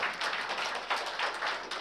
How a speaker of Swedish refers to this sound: Ge dig själv en applåd. Amen.